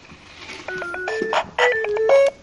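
A toy microphone plays a bright, tinny electronic melody of stepped beeping notes in two short phrases split by a brief pause. The tune sounds alone, with no talking.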